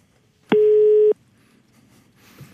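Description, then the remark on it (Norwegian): A single steady telephone ringing tone sounds while a call is placed, a loud, clear beep lasting just over half a second, followed by near silence with faint background noise. “OK, nå ringer jeg.”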